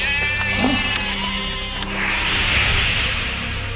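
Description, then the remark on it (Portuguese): Several sheep and goats bleat in overlapping, wavering cries, fairly loud, with a steady background hum of a flock and no talking. “Pegaram também as suas ovelhas e cabras, o seu gado e todos os seus bens.”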